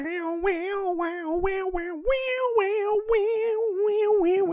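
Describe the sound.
A voice imitates an electric guitar riff a cappella, a continuous nasal, buzzy tone sliding and bending in pitch with quick rhythmic accents, sung fairly loud with no other sounds.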